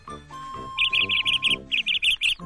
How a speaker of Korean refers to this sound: 네, 새소리 참 끝내주는구만. 좋 음. 산공기도 좋고.